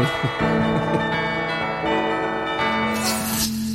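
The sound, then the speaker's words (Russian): Church bells ring out loud, a few heavy strikes whose rich, humming tones overlap and sustain without any talking. “Прямо как колокола по нему сразу звонят.”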